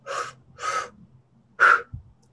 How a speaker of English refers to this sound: It's two like two counts in, one count out. Two counts in, so